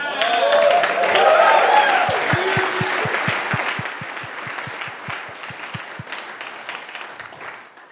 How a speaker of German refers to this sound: Ein Respekt an alle Mütter hier. Also, ihr verdient einen Applaus.